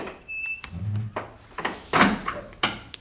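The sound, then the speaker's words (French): A door being closed, a few wooden knocks and clunks spread over a few seconds with a low thud as it swings shut, moderately loud with no talking. “Et fermez la porte derrière vous.”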